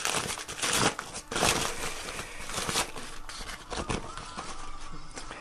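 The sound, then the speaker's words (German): A knife dices slices of cheese into cubes in a steady series of soft chops, with crisp rustling and crinkling between the cuts. Nobody speaks. “Ich habe jetzt hier einen Käse, den ich würfel.”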